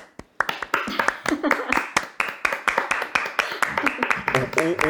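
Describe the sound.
Quick, sharp hand claps in a steady, slightly uneven rhythm run for about five seconds, loud and continuous, with voices talking and laughing underneath.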